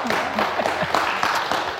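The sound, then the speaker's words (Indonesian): Audience applause for Luna Maya, a dense steady patter of many hands clapping at an even level throughout, with some voices faintly mixed in. “Tepuk tangan dulu untuk Luna Maya.”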